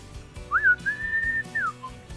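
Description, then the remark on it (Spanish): A person whistles a short signal call, a quick rising note held steadily for about a second before sliding down and ending with a brief lower tail, clear over a faint low background. “Me acuerdo el silbido porque no podías tocar el timbre porque no despiertas a toda la familia.”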